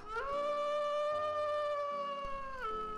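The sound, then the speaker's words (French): Wolves howl in a long, sustained, steady-pitched wail that rises at the start and falls away at the end, loud, with no talking. “Lorsque ceux-ci se mettaient à chanter, tous se réunissaient pour écouter leurs histoires.”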